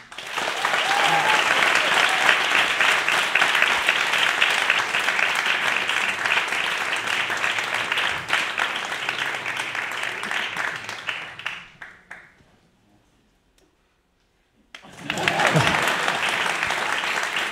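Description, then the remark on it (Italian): Loud, sustained audience applause welcomes guest Daniela Collu on the show Tintoria. The dense, steady clapping fades out around twelve seconds, followed by a brief silence before a second burst of applause begins. “Signore e signori, un applauso a Daniela Collu.”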